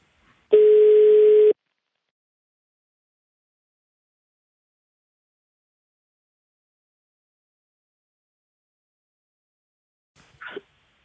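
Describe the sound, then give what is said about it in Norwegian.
A single telephone ringback tone of an outgoing call to a schoolteacher in Bergen sounds clearly for about a second, a steady electronic hum, followed by a long silence and a brief faint click or voice near the end. “så da ringer vi han.”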